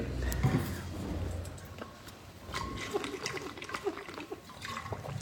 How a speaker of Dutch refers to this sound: Ik ga eerst eens een slok water pakken.